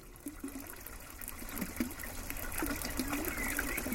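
Spring water trickles and splashes steadily from an iron pipe in a dripping rock niche in the woods below a monastery, the spring of Saint Odile, a continuous bubbling flow with brief higher gurgles, growing slightly louder toward the end; no voices.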